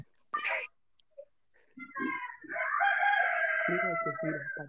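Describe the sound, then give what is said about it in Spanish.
A rooster crows loudly, one long drawn-out call with a couple of short sharp notes before it and lower clucking sounds underneath toward the end. “Ah, ah, caray, ¿ya amaneció? ¿Ya amaneció?”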